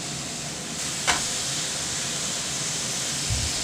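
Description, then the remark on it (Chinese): Tomato sauce being stir-fried in a pan sizzles steadily, a continuous bright hiss with a short scrape or stir partway through and a low thump near the end. No one speaks. “好，番茄酱经过炒拌炒之后，它会把它那个茄红素释放出来，就像番茄一样，”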